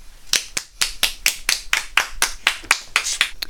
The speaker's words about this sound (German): Denn in Holland fahren 30% der Leute mit dem Fahrrad. Applaus für Holland!